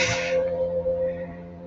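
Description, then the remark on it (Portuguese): A gas delivery truck passes, giving off a steady, droning tonal hum with a brief hissing burst at the start. No one speaks. “Tá passando um caminhão de gás aqui, não tá fazendo barulho não, né?”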